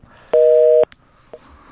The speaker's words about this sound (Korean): 전화 끊어졌네요. 예. 오늘 뭐 원래 출연을 하시기로 했었는데 전화 연결도 잘 안 되네요.